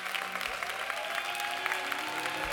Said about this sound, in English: Y'all clap it up. Y'all clap it up. Y'all clap it up.